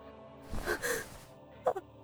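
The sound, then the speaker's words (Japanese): A faint, breathy gasp or wheezing inhale from another person, followed by a short weak breath or whimper, quiet with no speech; the fading breathing is heard amid the wrecked passenger seats of an airplane. “目の前に広がっていたのはもはや残骸となってしまった飛行機の客席時折聞こえてくるのは今にも消え入りそうな他の誰かの息遣い”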